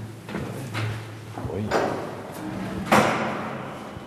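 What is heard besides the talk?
door being closed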